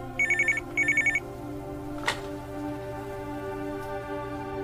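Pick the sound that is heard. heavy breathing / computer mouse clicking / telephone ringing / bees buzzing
telephone ringing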